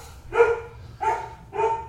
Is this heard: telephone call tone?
no